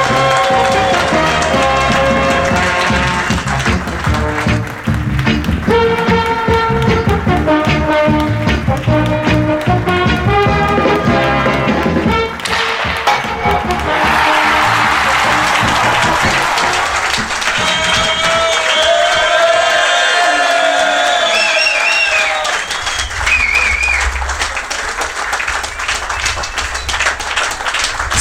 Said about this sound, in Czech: suverénně největší potlesk, co jsme na tom zažili.